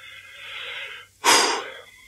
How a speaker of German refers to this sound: atmen, einatmen, ausatmen.